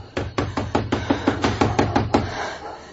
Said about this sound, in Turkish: Bari kimdir bu saatte kapıyı kıracakmış gibi çalan be Kapıyı aç korucu ağa.